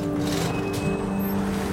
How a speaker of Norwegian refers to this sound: Det eneste som hindrer dem, er en skjoldborg med soldater. Men plutselig styrer en lastebil rett mot skjoldborgen.